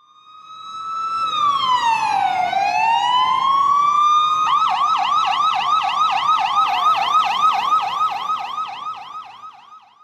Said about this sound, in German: Ja, das war eine Polizeisirene in Jerusalem. Ähm, als ich jetzt in den letzten Tagen dort war und wenn man im Hotel saß und das Fenster offen hatte und man hörte das, dann fragte man sich eben immer, ähm, was ist jetzt los?